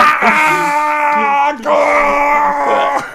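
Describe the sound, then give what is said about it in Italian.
A strained, drawn-out groaning scream, loud, held in two long pushes with a brief break between, sounding pained and tense. “Sembra che soffri di emorroidi, però con questo urlo qui incredibile.”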